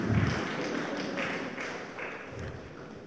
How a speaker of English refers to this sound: Hey, clap, clap.